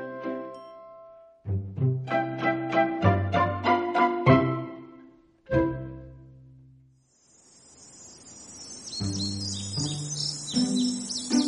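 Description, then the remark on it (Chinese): A short melodic tune of plucked-sounding notes, then a small bird's rapid, high-pitched chirps and trills come in over the music for the last few seconds as the bird flies in and lands on the rim of a well to rest. “这时一只小鸟飞来了，落在了井沿上休息。”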